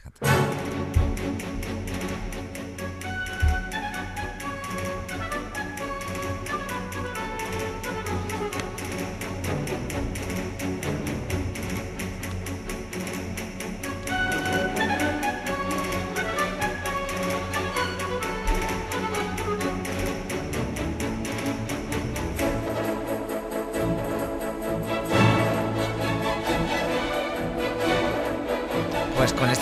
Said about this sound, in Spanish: Y te he seleccionado para acabar la danza española de ni más ni menos que de su ballet del Lago de los Cisnes.